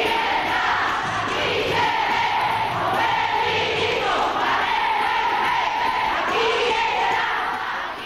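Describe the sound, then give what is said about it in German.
A large crowd chants and cheers at a women's and lesbians' demonstration in Brussels on 14 October 2000, with 30,000 to 50,000 participants; many voices shout together in repeated rhythmic bursts over a steady, loud roar of noise. “soweit Eindrücke, Interviews und Mitschnitte aus der Demo vom 14. Oktober 2000 in Brüssel.”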